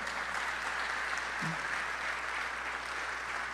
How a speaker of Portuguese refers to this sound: Pode aplaudir o nome do Senhor, porque é isso mesmo, amado.